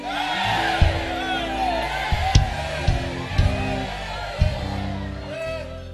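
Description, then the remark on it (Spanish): A large crowd shouts and whoops together in a loud, sustained roar, with sharp bursts and thumping accents rising out of the dense wall of voices. “A ver, grítele, imagínense.”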